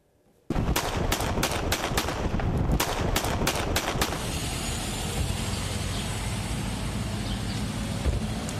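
A rapid burst of gunshots rings out in the street, around a dozen sharp cracks in quick succession, followed by a steady wash of loud background noise once the firing stops.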